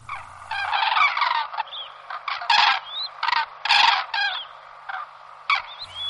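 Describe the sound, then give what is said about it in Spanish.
A migrating flock of common cranes calls overhead, a jumble of loud, rolling trumpeting bugles overlapping in irregular bursts, with no one speaking. “Entonces el reclamo de un grupo de grullas en migración es un reclamo bastante fácil de oír en los días de otoño, noviembre especialmente, en muchas zonas del interior de España.”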